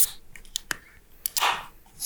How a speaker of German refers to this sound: Aha, es knallt, es knackt. Es knackt, die nächste Dose ist auf. Ich habe das Milkshake IPA geholt, das nennt sich. Äh, gut, oh, das lässt sich aber. Bloody Slush. Das ist ein äh, Raspberry Milkshake IPA.